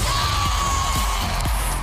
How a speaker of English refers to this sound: Then, the competition critics call the show of the summer is finally back. So you think you can dance. Let's go. And it has everyone cheering.